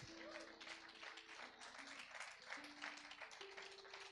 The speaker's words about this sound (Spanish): Eso es generosidad. Dele un aplauso al Señor por ese